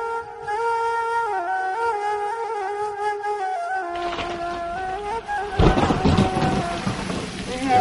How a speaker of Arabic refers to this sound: فأنت حين خرجت مع سليمان بن عبد الملك إلى البوادي فأصابه سحاب فيه برق وسواعق ففزع منه سليمان ومن معه